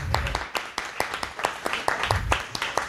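A crowd applauds with steady, dense clapping throughout, individual claps standing out sharply against a continuous wash of hands, with some low murmuring underneath.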